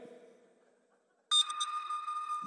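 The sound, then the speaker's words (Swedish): A sharp, bright sonar ping rings out suddenly after a low murmur fades, its pure metallic tone sustaining loudly with a shimmering, resonant tail. “Alltså det här är ju ljudet av en sån här sonar.”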